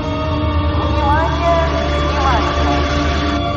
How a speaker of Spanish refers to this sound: Los autobuses avanzan.